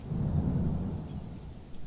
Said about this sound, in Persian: صدای رد و برق همه جا رو پر کرد و کم کم قطره های بارون زمین رو گلی کردند.